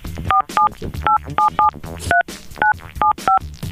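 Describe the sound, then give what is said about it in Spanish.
A phone number being redialed: about nine short touch-tone beeps in a quick, slightly uneven sequence, each a clear dual-pitched chirp over a low background hum. “A ver, vuélvelo a marcar.”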